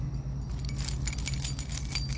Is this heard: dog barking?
no